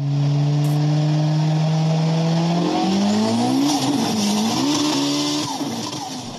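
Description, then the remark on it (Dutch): A racing car engine in an advertisement roars loudly and steadily, then revs up and down through rising and falling pitches, continuous with no talking, ending on a sustained high whine. “Dat was de midrol van auto.nl.”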